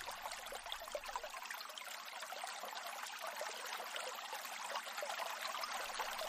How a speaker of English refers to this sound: The River Dodder begins as a trickle. It starts high in the Wicklow Mountains near Kippure. This is the river's source. The drops and trickles gather and flow together and become a river it moves downstream towards Dublin